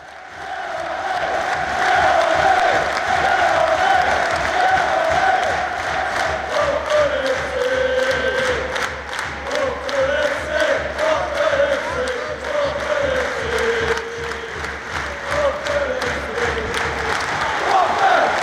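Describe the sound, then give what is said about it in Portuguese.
A big crowd of Watford football supporters in the stands at Vicarage Road chants "Yellow Army" together in a steady sung melody during a match against Manchester United, backed by loud, evenly spaced rhythmic clapping that continues throughout. “Eles começam é, cantando assim, precisa prestar atenção: Yellow Army, que é o exército amarelo, cor do Watford, sempre com ritmo de palmas lá na arquibancada.”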